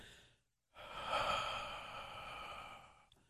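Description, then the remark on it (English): A long, slow exhale streams out smoothly and steadily for a couple of seconds, fairly loud, following a short breath in and a brief pause in which the breath is held, with no talking. “Hold it there for a second or two, and then exhale slow steady stream.”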